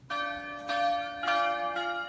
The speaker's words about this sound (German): Ortswechsel die Glocken von Taizé rufen zum Gebet.